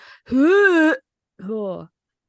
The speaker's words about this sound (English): sorry to everybody who just heard me puke in your ears, but yeah. gross. Ew.